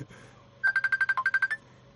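A telephone ringtone trills in a fast burst of about ten electronic pulses lasting under a second, fairly loud, with quiet background before and after and no talking.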